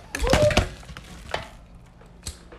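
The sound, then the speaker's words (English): A phone and other objects tumble over: a loud burst of clattering knocks, then two separate thuds follow at intervals as things settle. No one speaks. “Not my phone, not the phone and everything falling.”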